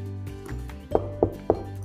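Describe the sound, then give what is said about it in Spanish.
Three evenly spaced knocks on a wooden cabin door, sharp, rapping over a low steady hum in the background. “Tocaron a la puerta y el dueño de casa los hizo pasar amablemente porque casi no tenía visitas en su cabaña, aislada del mundo, y porque además ya iba a llover.”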